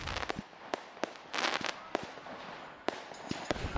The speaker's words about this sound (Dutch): Zelfs wat Bengaals vuurwerk eh, langs de lijn waar de rook opkomt. Niet alleen Bengaals vuurwerk, maar ook gewoon vuurwerk. Het knalt vanaf het sportpark.